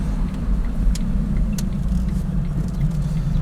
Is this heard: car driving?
yes